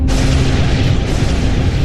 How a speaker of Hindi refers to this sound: आसमान में कड़कती बिजली की आवाज से मानो पूरे शरीर में कपकपी उठ रही थी